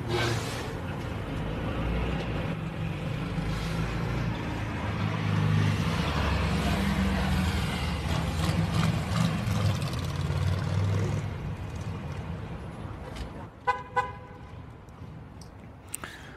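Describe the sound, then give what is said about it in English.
A car engine hums and rumbles steadily as 77-year-old member of Congress Norton slowly maneuvers her vehicle into a tight parking space, bumping into another car, followed near the end by a short, sharp horn toot and a couple of clunks. “So in the video, Norton, who is 77 years old at the time, was seen trying to park her vehicle in a tight space.”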